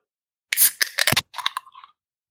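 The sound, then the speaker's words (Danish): A beer can is cracked open: sharp metallic clicks from the tab, a quick burst of hiss, then a softer fizzing that fades within a second or two. “spørgsmålet er, om ikke bare nu kommer vi over en dåse, i stedet for om ikke bare vi skal have, have fået hul på den, så vi kan få lov til at drikke noget øl.”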